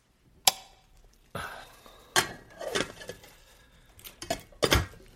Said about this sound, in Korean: 시인은 부엌에 불을 켜고 냄비며 전기밥솥을 열어보았다.